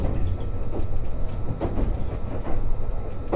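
A Gono Line Resort Shirakami No. 4 passenger train runs steadily on rails between Ajigasawa and Fukaura, Japan, with a dense low rumble and rolling roar, faint rhythmic clacks of wheels over joints breaking through. No one speaks.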